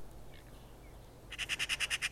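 A Eurasian magpie gives a fast, harsh chattering call, about seven rasping notes in a quick even burst, loud after a few faint earlier chirps against quiet background hiss.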